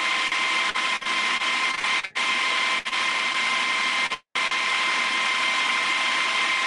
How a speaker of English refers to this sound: Sound like you're running a pressure washer, man. yeah, air compressor, yeah. My belt sander. Oh, a belt sander.